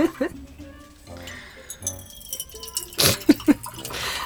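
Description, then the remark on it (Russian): Tea pours into a cup, a light trickling with a few sharp clinks of crockery, while people talk and murmur in the background. “да, я тебе налью чай тогда пока.”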